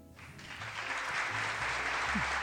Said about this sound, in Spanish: Y bueno. Fuertes aplausos.